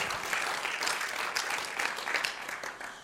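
An audience applauds a man steadily, a dense wash of many hands clapping at once with a few louder claps standing out, sustained at an even moderate level for the whole stretch.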